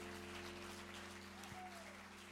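Soft, steady audience applause at a celebration that is also livestreamed, given in thanks to the pianist: a continuous patter of many hands clapping with no distinct individual claps, over a low constant electrical hum, with no one speaking.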